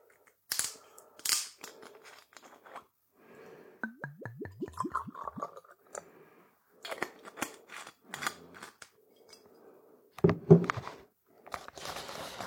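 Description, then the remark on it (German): Aalborg Tafel liquor glugs from a bottle into a Hard Rock Café Tel Aviv glass, not filled fully, in a quick series of gurgles, framed by sharp clicks, clinks and handling noises. No one speaks. “So, und das in mein äh, schönen Hardrock Café Tel Aviv Glas und auch nicht wirklich voll”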